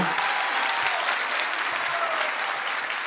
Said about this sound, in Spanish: como les venía diciendo, muchachos, primero un aplauso para los dos otra vez por estar aquí.